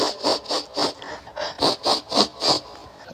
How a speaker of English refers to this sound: if you'd like to uh, uh, leave a message, you can do so after the sound of me sniffing.